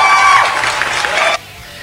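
A crowd claps and cheers loudly, a dense wash of hands and whoops that holds steady for over a second, then cuts off abruptly into near silence.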